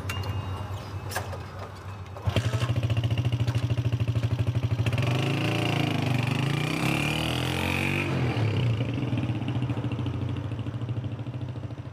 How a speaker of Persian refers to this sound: داریوش سوار موتور میشه